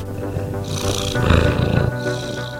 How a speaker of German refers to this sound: Welches Tier suchen wir? Ich sag es dir. Die Katze.